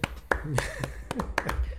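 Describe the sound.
A handful of sharp, irregular hand claps ring out, a few quick bursts of applause from a small group, with voices murmuring underneath between the claps.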